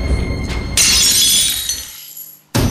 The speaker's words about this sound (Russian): Мать уже расставляла тарелки. Вдруг одна выскользнула из рук.